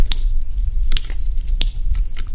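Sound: tongue clicking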